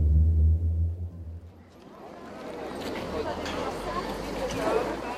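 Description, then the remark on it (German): Busy outdoor visitor car park ambience at Auschwitz, where parking attendants direct hundreds of coaches and cars on vast asphalt lots: a deep engine rumble fades out, then a steady wash of crowd chatter and footsteps fills the space, moderately loud with no single voice standing out. “Heute weisen Parkwächter auf riesigen asphaltierten Flächen hunderte Reisebusse und Autos ein.”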